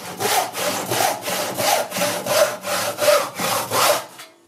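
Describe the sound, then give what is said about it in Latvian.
A hand saw cuts through wood in a workshop in steady back-and-forth strokes, about eight rasping passes in a regular rhythm, fairly loud, with no voices. “Un tā ir pilnīgi normāla situācija, ja galvenajā darbnīcā ēvelējot vai zāģējot, kāda sīka skaida trāpa acī.”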